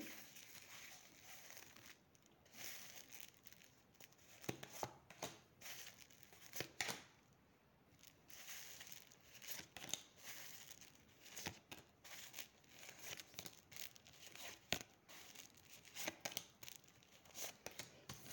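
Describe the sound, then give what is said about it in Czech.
Papery rustling and soft slaps as tarot cards are drawn and handled for a partner reading, with irregular crisp snaps and sliding sounds over about eighteen seconds, no one speaking. “Tak moment, vytáhnu karty.”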